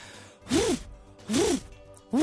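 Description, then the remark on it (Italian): A person's voice imitates a pigeon cooing, giving three breathy, rising-and-falling coos about a second apart, with no other sounds. “Guarda, so fare gufo. anche il piccione, aspetta.”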